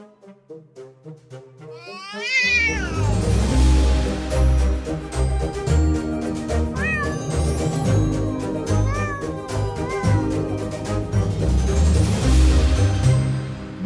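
A cat meows with a rising, drawn-out cry, then more meows recur over loud, driving music with a heavy beat that kicks in after a soft intro.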